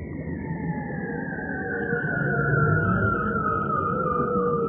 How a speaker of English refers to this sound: Yep, these weird alien like noises are bearded seals you get this most incredible sound where they sing these glissandos. So a bit like someone playing a trombone and gradually lengthen a trombone to give you a lower and lower note.